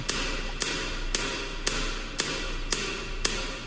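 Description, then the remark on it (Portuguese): Steady hammering, seven sharp strikes at an even pace about half a second apart, heard over a constant low background noise with no voices. “Estão martelando alguma coisa aí”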